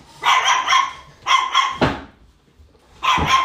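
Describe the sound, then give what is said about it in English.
A dog, Maverick, barks in three loud, sharp bursts, two in quick succession, then a short pause before the third. No one speaks. “If you start, dog.”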